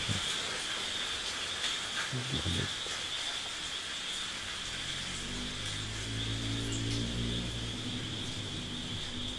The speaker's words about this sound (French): Mais là, ça ressemble à une pluie euh, ordinaire.